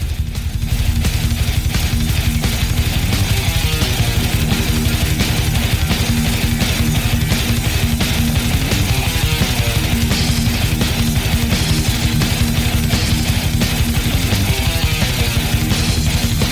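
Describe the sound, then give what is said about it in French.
A frantic thrash metal guitar passage from a song intro featured in Guitar Hero tears along without a break, dense, distorted and relentlessly fast triplets, played loud with no voices over it. “il y a un bout où justement ça devient un pur délire qui est à peu près pas jouable”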